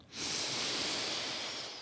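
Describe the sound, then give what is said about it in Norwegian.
A soft, steady hissed S sound as someone in a studio breathes out slowly through their teeth during a breathing exercise, starting after a brief pause and holding evenly for over a second and a half before easing slightly. “Og så puster vi ut med å si en svak S mellom tennene.”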